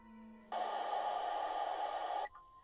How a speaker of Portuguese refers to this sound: Uma mensagem de emergência é acionada no alto-falante do vagão.